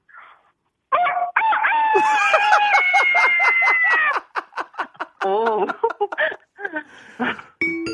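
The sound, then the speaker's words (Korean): A person loudly imitates a loud-voiced rooster's crow in one long, strained harmonic call, then bursts into laughter with others chuckling. “네, 목청 좋은 수탉입니다.”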